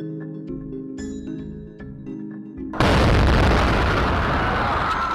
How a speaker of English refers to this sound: first of the two explosions rocks the sidewalk along the course, white smoke blasting into the air.